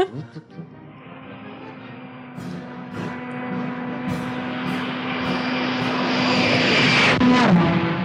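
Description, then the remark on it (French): An archive recording of the French propeller-driven aérotrain roaring past, a loud, steady engine drone with a strong low hum that swells gradually as it approaches and stays intense to the end; a brass band plays in the background of the archive. “Ça, c'est le bruit de l'aérotrain.”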